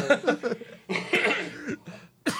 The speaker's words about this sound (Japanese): 咳出るわもう。